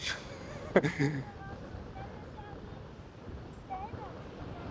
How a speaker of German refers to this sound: Wir haben heute echt starken Wind. Das ist schon, aber mega Sonnenschein und lieber mit tollem Wind und Sonnenschein am Strand als äh, nicht, oder?